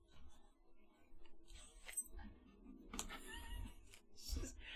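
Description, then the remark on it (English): A deck of cards is shuffled and cut into three piles, a quiet series of crisp papery riffles and soft clicks with a few sharper snaps, and no one speaking. “Shuffle those and cut those into three decks for me.”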